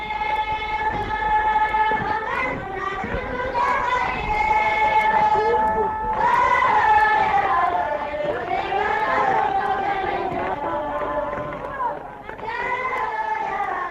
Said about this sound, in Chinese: 我们听到的是打阿嘎的歌声。 哎，对，嗯，这中间你能听到这个啪啪那个声音，那是在打阿嘎。